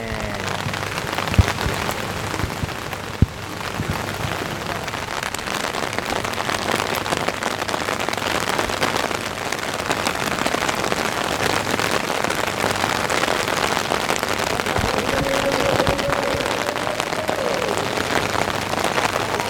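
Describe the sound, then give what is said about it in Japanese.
Steady, heavy rain pours down outdoors and grows stronger, a dense continuous hiss of drops striking surfaces, with no voices and only a couple of sharper spatters standing out. “このなしか雨が強くなってまいりましたけどねね”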